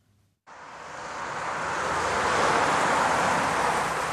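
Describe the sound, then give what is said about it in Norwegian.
Heavy road traffic, including heavy vehicles, roars past a few meters away on county road Fv. 60 in Solvik, a loud, sustained rushing rumble that kicks in after a brief quiet moment and swells steadily, with no voices. “Han står utenfor og ser tungtrafikken dundre forbi bare noen meter unna.”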